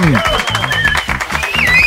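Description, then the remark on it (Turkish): A burst of canned, electronic-sounding digital applause and cheering sound effect plays loudly and steadily for about two seconds during a live broadcast on Kral Pop Radyo, with voices and tonal sounds mixed in beneath it. “Bu dijital alkış efekti var ya bu arada.”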